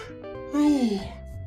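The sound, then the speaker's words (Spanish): A single drawn-out voiced yawn, rising to a loud open-mouthed peak and then sliding down in pitch before trailing off into breath. “yo bostezo. Bostezo porque me hace falta oxígeno en el cerebro.”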